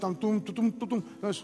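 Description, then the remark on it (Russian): A man's voice mimics a brief fanfare, belting five punchy, rhythmic sung syllables, then breaks off into ordinary speech. “Я думал, они меня будут фанфарами встречать,”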